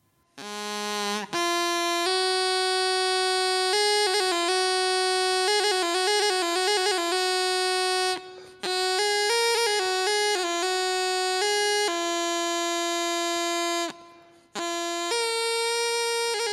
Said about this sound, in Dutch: En dan hebben we nog de riettoeter. Dat is een soort slangenbezweerdersfluitje.